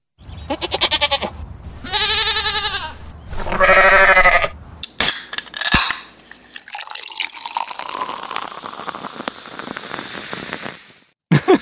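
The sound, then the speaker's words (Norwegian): Three loud, wavering bleats from billy goats, used as a clue for the Norwegian fairy tale Bukkene Bruse, followed by a patter of rain or dripping water with scattered clicks continuing to the end. “Bukkene Bruse”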